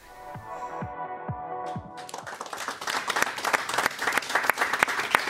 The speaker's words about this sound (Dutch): Absoluut terecht, eh, dat applaus.